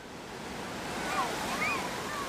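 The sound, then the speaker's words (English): Steady ocean surf washing onto Ipanema Beach in Rio de Janeiro, Brazil, a broad continuous rush with gentle swells, with faint voices and a few thin whistling tones drifting through. “Ipanema is about a two mile stretch of beautiful sand and water at one end, two jagged mountains jut up like thimbles.”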